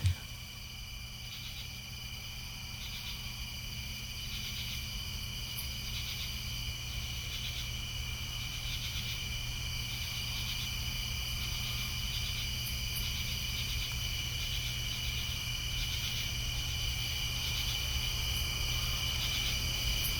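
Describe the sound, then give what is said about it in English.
Steady chorus of crickets chirping continuously for the whole stretch, a dense, shimmering high-pitched trill with a low background hum, no voices, holding an even loudness throughout. “I'm asking because those were the best crickets I, I yes. could find.”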